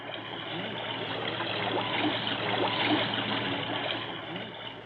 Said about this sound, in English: This is the sound of water.